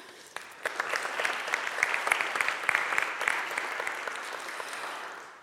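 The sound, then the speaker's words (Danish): An audience claps steadily for several seconds, a dense patter of many hands that stays fairly even before easing off slightly at the end; applause for Meta's political head for the Nordic region after his contribution. “Lad os give ham en hånd.”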